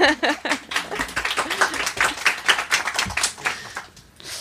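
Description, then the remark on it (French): A crowd applauds steadily, many hands clapping in a dense, crackling patter that stays fairly even, then thins out slightly toward the end. “on a envie faire un petit quand même d'applaudissements.”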